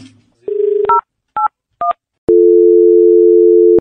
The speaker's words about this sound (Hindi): एक बार दोबारा रिपीट करते हैं सेम नंबर मिलाते हैं